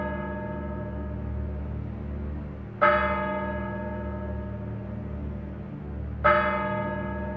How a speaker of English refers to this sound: As the clock strikes 13, it's Monday, the 21st of November, year of our Lord 2022.